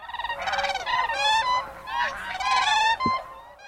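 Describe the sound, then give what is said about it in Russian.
A common crane calls repeatedly, loud trumpeting, rolling bugle notes with a rich, nasal tone that come in quick overlapping bursts, with no talking. “Да, но стер кричит по-другому, чем серый журавль.”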